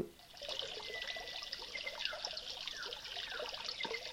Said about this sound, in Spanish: Hoy he querido hacer un viajecito hacia Galicia e irme a un sitio apartado de la ciudad, apartado de del ruido molesto de los coches, Estoy en la plena naturaleza.